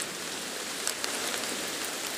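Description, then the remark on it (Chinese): Heavy rain pours down over a forest on a spring afternoon in a steady, dense hiss across the whole clip, with a few brighter drop impacts standing out briefly. No voices are heard. “一个春日的午后，森林上空飘来一大朵乌云，没一会儿就哗啦啦地下起大雨来。”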